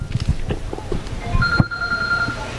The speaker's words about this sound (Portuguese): Esse telefone aí só pode ser